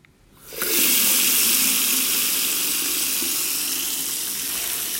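running tap water

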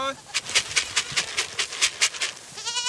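goats bleating

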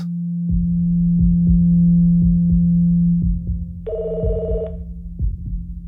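telephone ringing

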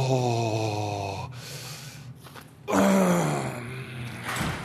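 heavy panting

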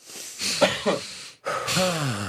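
deep breath taken together

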